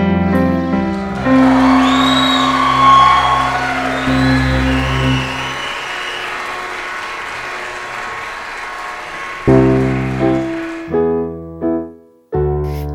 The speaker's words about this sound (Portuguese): Mas e as palmas?